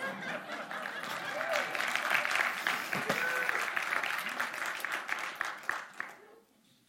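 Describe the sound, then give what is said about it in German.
An audience claps steadily for about six seconds after a sermon, a dense patter of many hands with a few chuckles mixed in, before the applause cuts off abruptly. “Könnt ihr mir auch mal Applaus geben nach meiner Predigt?”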